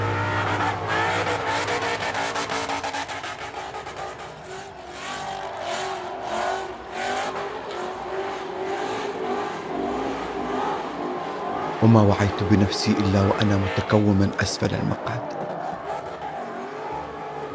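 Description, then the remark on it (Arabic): A car roars and revs while drifting, its tires screeching, skidding and burning on the asphalt as smoke fills the place, the squealing swelling louder toward the end, with a person talking over the noise. “لما تفعله بتلك السيارة من التفحيط وكيف تحرق إطاراتها على الأسفلت وروائح الدخان التي امتلأ بها المكان”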